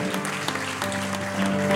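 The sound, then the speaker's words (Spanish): An audience applauds the Lord steadily after a prayer, a dense wash of many hands clapping at a fairly loud, even level, with a sustained musical tone humming underneath throughout. “Un aplauso al Señor.”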